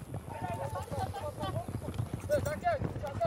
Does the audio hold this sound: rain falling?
no